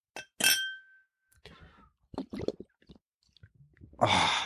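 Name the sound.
beer glasses clinking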